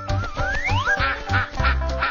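A duck quacks repeatedly in a quick, nasal rhythm, fairly loud, with a rising squawk early on and no voices.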